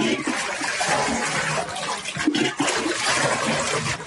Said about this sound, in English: The water poured into every room of this house. It just keeps coming in while bubbling through the floorboards of another before flooding it completely, leaving dirt and debris behind.